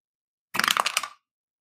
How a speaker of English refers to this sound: So um, why don't you go ahead and roll 2d6 plus your savior to defend?